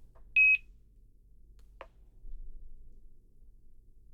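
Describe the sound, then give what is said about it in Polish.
A single short, high electronic power-on beep from a reading device being switched on sounds near the start, followed a moment later by a brief soft click over a quiet low hum. No one speaks. “To piśnięcie to jest y, sygnał włączenia, tak?”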